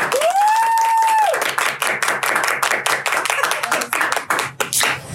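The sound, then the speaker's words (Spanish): A crowd at the opening of the show La Terraza de Emiliano claps steadily and densely for several seconds, the dense patter of many hands, with a clear sustained whistle rising over the applause at the start before fading. “¿Aplauden? ¿Aplauden?”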